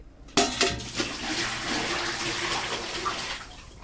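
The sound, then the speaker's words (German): A bucket of water is poured over a person's head: a sudden rush of water hits at once, then a broad splashing, gushing wash continues steadily for a few seconds before tapering off. “Hier schauen Sie mal, dieser Eimer über Ihrem Kopf.”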